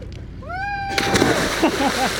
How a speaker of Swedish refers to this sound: lät som ett ah! magplask alltså.